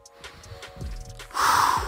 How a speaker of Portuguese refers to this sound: Isso! Fazendo alta trilha aí, tá? Desculpa a ofegância. Mas eu tenho que prestar atenção nas pedras, gravar o vídeo e ainda respirar certo.